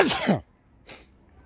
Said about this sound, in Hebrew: מרוב כל ההרפתקות האלה בא לי לעשות אפצ'י. מההרפתקה של האפצ'י. אז תנשמו. אה, כמעט. אה!